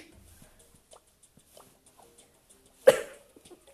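A single sharp, loud cough bursts out after a stretch of quiet background clicks and faint murmurs, then trails off quickly.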